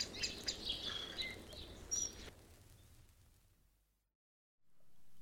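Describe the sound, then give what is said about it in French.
Several birds chirp in short, high twittering bursts over a soft outdoor background hum, then the chirping and ambience fade away into near silence. “Avec tous ces oiseaux à la con, ils trouvent ça calme.”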